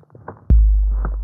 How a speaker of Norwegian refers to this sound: Så hører de noen tunge, kraftige steg komme mot seg. Denne lyden har de hørt før. Det er nemlig bare store troll som høres slik ut når de går. Og dette trollet må være gigantisk. Gjengen kjenner at bakken dirrer, og lyden av stegene kommer nærmere.